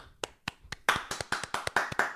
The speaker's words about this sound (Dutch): Ja, applaus voor de ANWB.